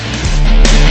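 A loud pop rock song plays on the radio station Now Music, with a dense, full-band sound of driving guitars and drums, filling the brief moment with no voices talking over it.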